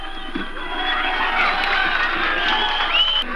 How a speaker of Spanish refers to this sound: los presos sociales gritaban y aplaudían la acción